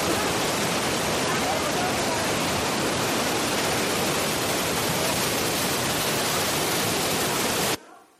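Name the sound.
rushing river in flood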